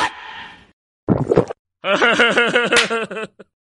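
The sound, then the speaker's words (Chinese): A hard, wet sniff from someone with a cold who sucks the mucus back instead of blowing their nose while pulling weeds in a field in winter, pulling air noisily through a runny nose, followed by a second short snort, then a bright, wavering voiced sound like giggling. “我哪里会擤鼻涕，使劲一吸，”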